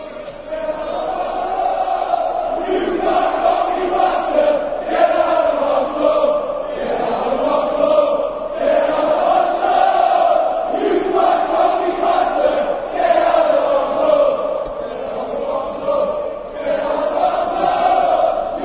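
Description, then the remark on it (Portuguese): A large Newcastle United football crowd chants in unison, a loud, rhythmic protest chant of "Get out of our club" against the club's largest shareholder, repeated in steady phrases for the whole stretch, voices massed together with no single speaker standing out. “Então é essa bronca que a gente vai ouvir agora. Get out of our club.”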